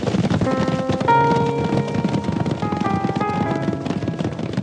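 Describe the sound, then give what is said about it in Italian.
Thirteen riders set off on their horses at a gallop in pursuit of a man, a rapid, steady drumming of hoofbeats, fairly loud, with sustained musical tones playing underneath throughout. “Salirono dunque sui loro cavalli e partirono tutti e tredici per cercare di fermare quel pazzo.”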